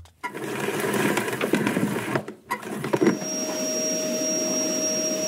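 A vacuum cleaner runs loudly and steadily with a broad rushing roar, cuts out briefly, then starts up again with a rising motor whine that holds to the end.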